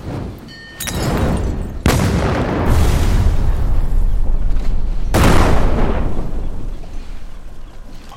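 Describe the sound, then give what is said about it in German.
Three heavy explosions go off in the distance among ships, a few seconds apart, each a sharp burst that spreads into a long, rolling rumble, with a dense roar filling the gaps between them, as the foremost ship appears to sink. “Explosionen und es scheint eins der Schiffe, und zwar das vorderste, unterzugehen.”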